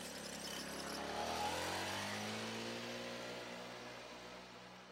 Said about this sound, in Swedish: Men sen försvinner mopeden iväg i riktning mot glasbruket.